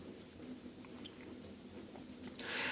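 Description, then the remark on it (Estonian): A campfire crackles steadily with scattered small pops over a low rumbling bed, ending in a louder hissing flare. No one speaks. “ja ainsaks eri ja heliefektiks, mida te kuulete tänases osas, ongi lõkkepragin.”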